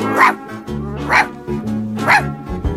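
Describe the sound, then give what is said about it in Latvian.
A dog called Pif barks three times at a steady pace, about one bark per second, loud, over a low continuous background rumble. “Es esmu suņuks pifs.”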